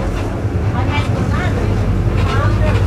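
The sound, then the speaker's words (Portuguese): Loud, steady engine rumble fills a crowded city bus as someone boards it, with murmuring voices and crowd chatter layered over the constant low drone. “Pera aí que agora eu vou entrar no ônibus aqui.”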